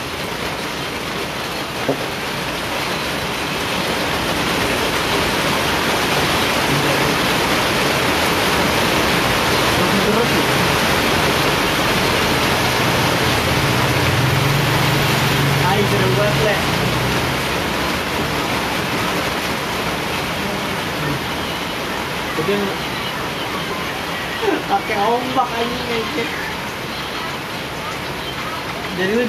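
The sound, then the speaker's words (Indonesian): Surf rolls onto a beach shore in a loud, steady, continuous roar that swells and eases slightly throughout, with faint voices briefly audible toward the end. “pinggir pantai nih”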